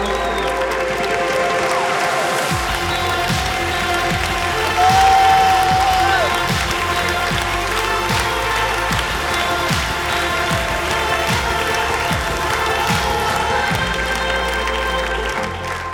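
A large crowd bursts into sustained applause and cheering, steady dense clapping with shouts and a brief whistle, continuing loudly for the whole stretch like a standing ovation.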